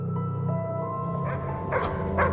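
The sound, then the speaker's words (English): A dog barks three times in short, sharp bursts against a steady droning, tonal background, the barks moderately loud, spaced unevenly over a couple of seconds. “Shut that dog up!”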